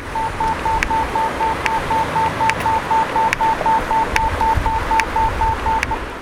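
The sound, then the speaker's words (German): A pedestrian traffic light gives its green signal, beeping in a fast, steady series of short tones with a sharp tick roughly every second, all over a constant wash of loud street noise. “Das äh, Grünsignal der Ampel, das wird komplett übertönt vom Kirchenglocken.”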